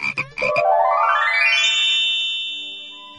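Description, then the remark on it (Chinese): A quick burst of raspy frog croaks, three or four rapid pulses, gives way to a bright tone that slides upward in pitch, holds steadily, then slowly fades. No one speaks. “我来问，你来答，呱呱提问题。”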